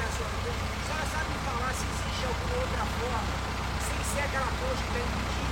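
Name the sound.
truck passing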